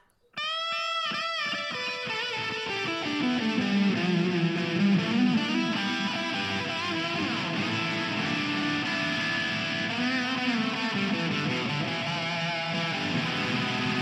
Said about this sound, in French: Et l'instrument semblait avoir changé de sonorité. Eh, écoutez-moi ça maintenant.